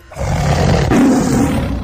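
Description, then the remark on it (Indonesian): A loud, deep tiger roar in a forest, louder than tigers usually sound, fills the whole moment, a sustained rumbling growl that swells and holds with no voices around it. “terdengar auman harimau keras dan lebih keras dari harimau yang biasanya terdengar.”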